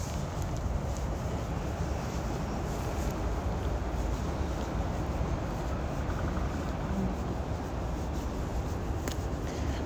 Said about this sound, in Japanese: 聞こえるかなこのジャンクションの音。